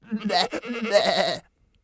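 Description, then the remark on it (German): A human voice imitates a goat's bleat, a wavering, quavering 'meh' drawn out for over a second, loud, then silence. “Aber als der Vater zu Hause im Stall die Ziege fragte, ob sie satt geworden sei, antwortete sie ihm Wovon soll ich satt sein? Mäh.”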